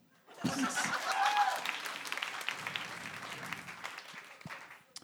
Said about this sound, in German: So, Applaus.